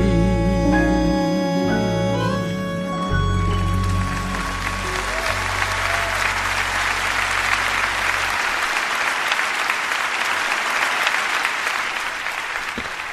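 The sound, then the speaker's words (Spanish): A waltz's final sustained chord rings out and fades as loud, dense applause from a large audience swells and continues steadily for about ten seconds. “Aplausos, sí, muchos aplausos”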